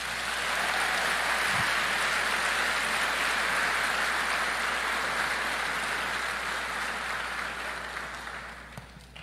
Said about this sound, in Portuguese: Você pode aplaudir a Jesus por isso?